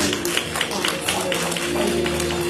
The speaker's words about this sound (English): In Jesus' name, everyone that loves the Lord, give him a hand clap